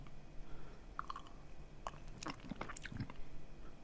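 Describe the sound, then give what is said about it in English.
Quiet wet mouth sounds of someone sipping and tasting a pink wine: small slurps, lip smacks and tongue clicks scattered irregularly over a few seconds, with no talking. “Just take a quick sip.”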